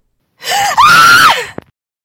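A woman screams out in anguish and despair: a short strained cry that breaks into a longer, high wailing scream, loud, then cuts off, followed by a faint click.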